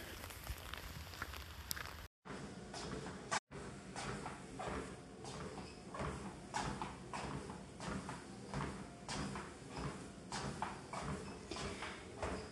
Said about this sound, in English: Well, as you can hear from my heels scraping on the treadmill, I'm on the treadmill.